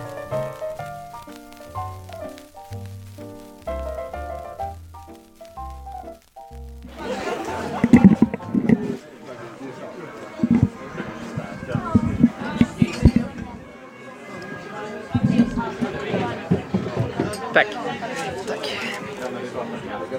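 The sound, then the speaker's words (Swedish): Lively bar ambience at the Hirschenkeller on Hornsgatan: a crowd of overlapping voices murmuring and laughing, with frequent clinks of glasses and cutlery, preceded by a few seconds of low, steady musical tones before the room noise swells in. “Eh, vi är nu på, på Hirschenkeller på Hornsgatan vill jag säga.”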